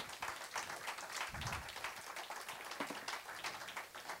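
A crowd claps steadily for Jesus, with dense, overlapping hand claps forming a continuous wash of applause throughout, without any voices on top.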